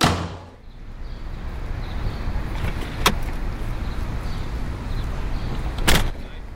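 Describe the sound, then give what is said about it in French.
A car door thumps shut near the start, then a car engine rumbles steadily as the vehicle gets underway on the way to a bar, with a couple of sharp clicks or knocks cutting through the road noise. “nous étions en route pour le bar de Joey”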